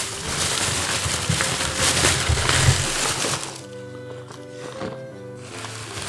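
Loud, crackling rustle of wrapping paper being torn and crumpled as a small Christmas gift of homemade brunkager cookies is unwrapped, for about three seconds, then the crinkling stops and a softer, steady tonal sound carries on.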